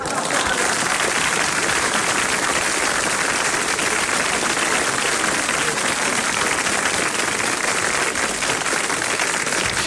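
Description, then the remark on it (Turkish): Sustained applause from a crowd, a dense, even wash of many hands clapping at steady loudness for the full length, with no voices standing out above it. “Alkışlar size gelsin.”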